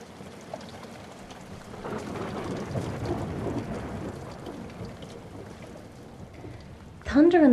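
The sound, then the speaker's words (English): Heavy rain pours steadily throughout as low, rolling thunder swells and rumbles through the middle of a lightning storm over the dusty border town of Gadaref in Sudan, breaking the still, dry heat; a voice starts speaking right at the very end. “lightning burst the skies. The rains poured down, breaking the still, dry heat of that dusty border town in Sudan.”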